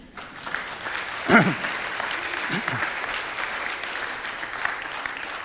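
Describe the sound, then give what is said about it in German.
An audience applauds people who came up on stage, a dense, even wash of clapping that holds throughout, with a brief louder burst near the start and a couple of short voice-like sounds poking through. “Ein Applaus für Sie.”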